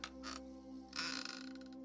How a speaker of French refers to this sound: Un bruit sur le côté, un mouvement devant vous, le bruit de cette chaise,